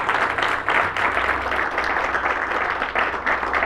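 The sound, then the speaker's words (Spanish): Steady crowd applause at a church service, the audience applauding the Lord, a dense wash of many hands clapping at once that stays loud and even throughout, with a low hum running underneath. “Y ustedes dicen amén y aplauden al Señor y alaban al Señor.”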